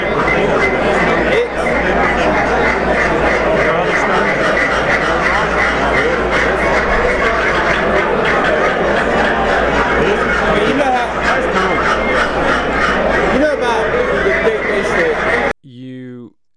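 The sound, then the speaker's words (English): A dense, loud din of many duck calls from a call maker being blown at once during a busy morning at a duck call show in Unicoi. Quacks and honks overlap continuously with crowd babble indoors, cutting off abruptly near the end. “calls from from yeah. a call maker”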